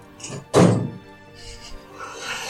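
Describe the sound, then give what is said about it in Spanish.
A heavy, booming thud lands suddenly as heavy doors of a main hall swing open and hit their stop, followed by a low rumbling decay and faint creaking ambience. “Justamente cuando cae un rayo, escuchan cómo se abren las puertas de este lugar principal.”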